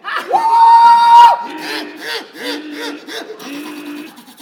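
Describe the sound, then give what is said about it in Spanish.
A voice imitates a siren with a loud, sustained high wail rising and holding for about a second, followed by lower, wavering wails and shouting voices. “¿Qué la sirena! ¿Cómo me sale”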